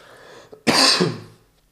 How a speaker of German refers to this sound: Es gab eine, Entschuldigung, keine Ahnung, warum ich wieder am Husten bin.